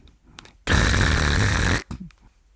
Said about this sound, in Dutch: En tot overmaat van ramp zag ik vanuit mijn ooghoek de tuinman arriveren. En die pakte zijn heggeschaar.